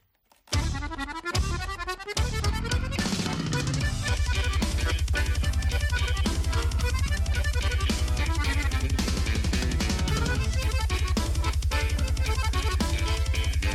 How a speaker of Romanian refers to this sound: Această melodie de la … este de pe ultimul album.